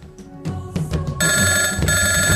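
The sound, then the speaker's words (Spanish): A telephone rings loudly with a steady, bright electronic trill of layered high tones, sustained for over a second after a few short preceding bursts, as a radio show calls Santiago Camacho. No one speaks. “Llaman a Santiago Camacho.”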